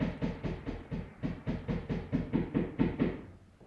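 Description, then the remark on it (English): A rapid, steady series of about fourteen dull knocks on a wall by a neighbor, evenly spaced and somewhat muffled, as if coming through from the other side; no voices. “My neighbor's knocking on the wall.”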